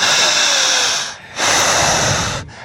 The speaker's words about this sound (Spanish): Aprendan a escuchar su propia respiración. Fuerte, más fuerte